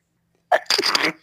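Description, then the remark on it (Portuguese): A single sharp sneeze bursts out, a short breathy intake followed by a loud explosive release that fades quickly. “Saúde.”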